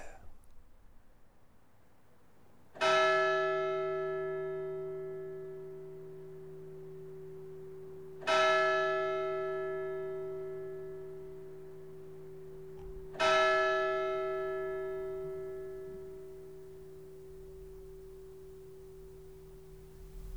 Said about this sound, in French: le coupable, c'est celui ou celle qui fait sonner les cloches du village n'importe comment toutes les nuits.